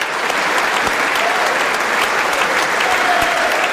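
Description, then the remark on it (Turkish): Sustained standing ovation lasting minutes from a large crowd in the US Congress as Ukrainian President Zelensky enters the hall, before his speech. Dense and steady, with many hands clapping at once, loud and unbroken throughout. “Salona girişinde ve konuşmasına başlamadan önce dakikalarca ayakta alkışlandı.”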